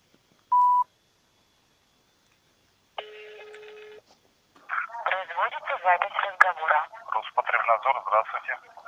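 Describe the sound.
A short electronic dialing beep, a pause, then a single buzzing telephone ringing tone lasting about a second, after which a voice begins talking over a thin, band-limited phone line.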